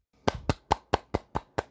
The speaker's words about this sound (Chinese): 好，现在已经很晚了，所以我就呃手指掌声好了。